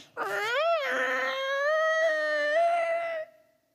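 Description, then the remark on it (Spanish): A heavy iron cell door creaks open in one long, loud squeal that rises in pitch and then holds a steady whine for about three seconds before stopping. No one speaks. “Pero no así José, porque un día escucha los eh, hierros chirriar de su celda.”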